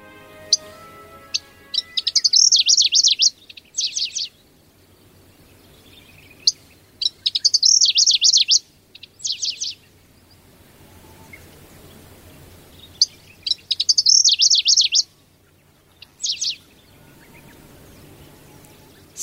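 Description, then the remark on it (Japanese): A single small bird, a Middendorff's grasshopper warbler about 15 cm long, sings from bamboo-grass thickets beside a cattle pasture. Its song is short bright phrases of rapid chirping notes repeated about every five seconds, clear, with quiet gaps between songs and no talking. “そのクマ熊サの茂みあたりで先ほどから1羽の小さな鳥がさえずっています”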